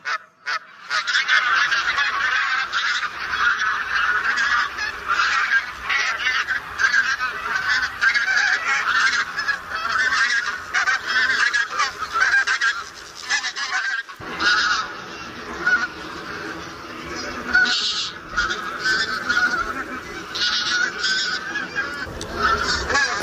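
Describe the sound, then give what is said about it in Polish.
A large mixed flock of migrating barnacle and bean geese gathering before departure calls together in a continuous, noisy chorus of overlapping honks and yelps, loud and steady throughout with no pauses. “rozwrzeszczały nam się teraz wspólnie i zbożowa, i bernikla, ale wszystkie te nasze gęsi gdzieś tutaj tak wędrują i przelatują, bo przecież obserwowaliśmy je na przelotach.”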